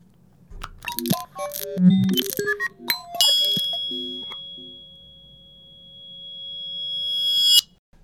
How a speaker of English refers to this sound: we're going to introduce you to our random introduction jingle creator button. It's, a very complicated way of explaining a button that makes a random noise each day that we use as our introduction to the podcast.